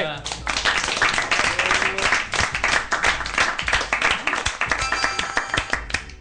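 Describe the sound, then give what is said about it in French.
An audience breaks into sustained applause, a dense wash of clapping that stays loud and steady for several seconds, with a few voices mixed in. “On peut l'applaudir.”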